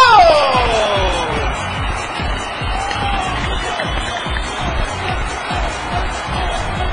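A loud burst of crowd applause and cheering that holds steady throughout, dense clapping mixed with shouts and a rising whoop at the start.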